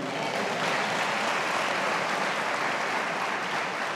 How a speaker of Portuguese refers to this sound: Só os escolhidos de Deus aqui aplauda ele.